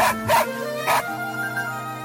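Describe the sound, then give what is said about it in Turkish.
A dog barks twice in quick succession, fairly loud, each bark short and sharp, followed by a lingering tonal hum fading out. “İnsanlardan, köpeklerden ve kedilerden köşe bucak kaçıp saklanarak bir evden içeri atmışlar kendini.”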